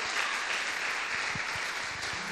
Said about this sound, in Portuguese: Aplauda ele mais uma vez.